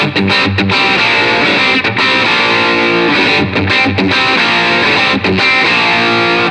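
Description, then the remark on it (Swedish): Heavily distorted electric guitar played through an amp with Marshall distortion, gain and volume turned down slightly, loud and saturated with dense, buzzing chords and brief choppy breaks, sustained throughout with no talking. “Fortfarande för mycket eh, Marshall dist.”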